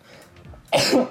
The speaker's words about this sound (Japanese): ちょっと待ってくしゃみそう